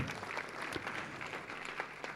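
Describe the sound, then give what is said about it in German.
Steady applause from an audience for a speaker after a blessing at a Pentecost service, a dense wash of many hands clapping at an even, sustained loudness for a couple of seconds, with no voices standing out. “Lass ihm uns einen Applaus geben.”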